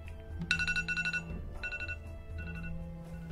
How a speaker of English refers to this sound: that is the timer.